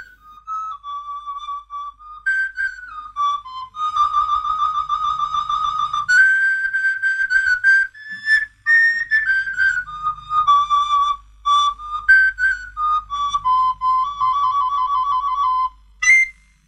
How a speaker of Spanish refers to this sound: Otro instrumento de por humor arte que tampoco es tan instrumento es el narguilófono, también hecho por Hidalgo y Núñez.